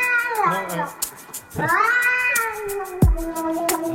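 A cat in a viral internet clip meows loudly in long, drawn-out, wavering yowls, several in a row that almost sound like sung syllables, with a short thump partway through.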